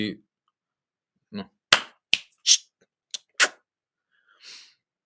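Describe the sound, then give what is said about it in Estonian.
Several crisp finger snaps ring out at an uneven pace, some in quick pairs, with a couple of soft breathy vocal sounds before and after; the snap serves as a wordless prohibition command in dog training. “ehk siis, ehk siis sellel, sellel noh, keeld, mis tuleb ilma hääleta, mis on nips, plaks või, või”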